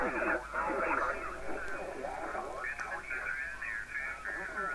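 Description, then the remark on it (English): Band-limited audio from an amateur HF radio receiver: a distorted, warbling voice signal drifts through static as a receiver control is turned, the tone shifting and smearing; steady, fairly loud, continuous throughout. “Explaining the controls on my Amateur HF Radio”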